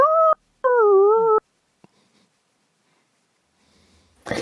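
A dog lets out two loud, drawn-out whimpering howls, the second longer and wavering in pitch, followed by near silence and a brief rustle at the end.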